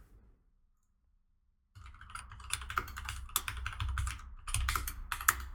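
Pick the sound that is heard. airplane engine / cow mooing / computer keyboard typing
computer keyboard typing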